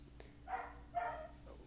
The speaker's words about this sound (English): My, the the neighbors' dogs always distract me.